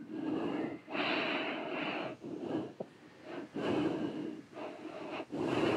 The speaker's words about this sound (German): Und dann drücken, tief atmen.